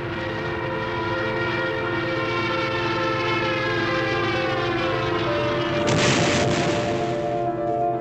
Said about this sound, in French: Tout le monde voyage à la merci des bombardements et de l'attaque en piqué des Stuka. Les Allemands ont un avion de chasse plus rapide que les avions français et qui a mis au point une attaque en piqué, comme une énorme sirène.